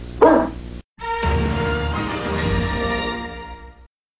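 dog barking and whimpering

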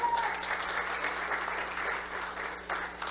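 audience applauding

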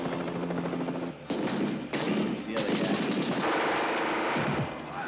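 machine gun fire

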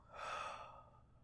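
slow exhale of breath

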